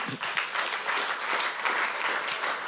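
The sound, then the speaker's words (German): An audience applauds steadily, a dense wash of many hands clapping at a fairly even level throughout, with no voices rising above it. “Komm on, vielen Dank, Applaus.”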